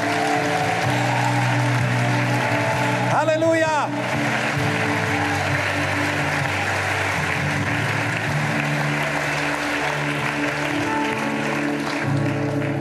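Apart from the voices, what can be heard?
audience applause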